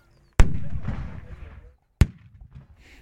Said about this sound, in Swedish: Bland annat en som visar hur karolinerna såg ut och hur det gick till under ett fältslag. Där först artilleriet avfyrar sina kanoner.